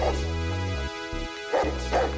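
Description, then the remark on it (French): A huge dog with a dirty coat barks loudly and repeatedly as it lunges at people, the sharp yaps mixed with high whimpering whines, over a steady low droning background. “Un énorme chien au pelage sale les fixe et se jette sur eux.”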